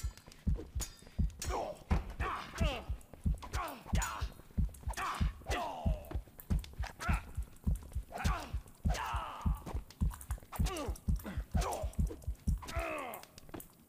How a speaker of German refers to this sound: Okay, fängt Herz zum Klopfen an, da muss ich es wahrscheinlich aufpassen.